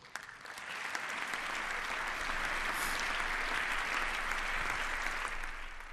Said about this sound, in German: Das Klatschen im Bundestag und auf den Balkonen, das sollte natürlich Anerkennung zum Ausdruck bringen.